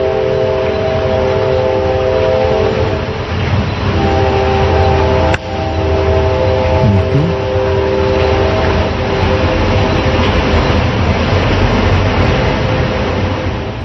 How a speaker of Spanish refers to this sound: Sonidos misteriosos del tren con luces en el cielo